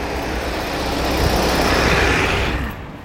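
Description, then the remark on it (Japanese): Steady roar of passing car traffic, a broad rushing road noise that swells in the middle and fades near the end, with no voices present. “相変わらずこう車の雑音とかがすごいと思いますけどね”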